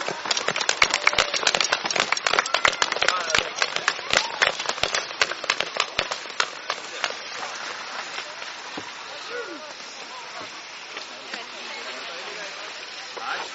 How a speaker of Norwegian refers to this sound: Stor applaus for gutta våre.